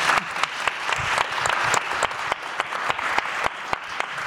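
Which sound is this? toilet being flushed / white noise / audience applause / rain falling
audience applause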